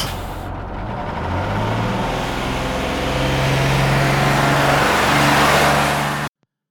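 A bus engine rumbles loudly and revs up, its low drone climbing in pitch as the vehicle rolls forward, steady for about six seconds before cutting off abruptly.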